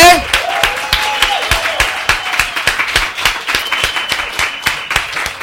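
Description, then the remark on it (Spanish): A church audience breaks into loud, steady applause lasting several seconds, welcoming visiting members of Church on the Rock in the morning, many hands clapping in a dense, uneven rhythm, with a few raised voices and faint cheers mixed into the crowd noise. “Un aplauso bien fuerte.”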